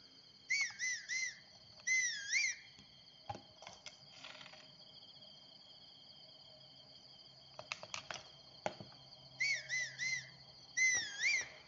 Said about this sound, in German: Sorry, ich muss jetzt ein bisschen pfeifen, weil sonst kommen die nie hierher.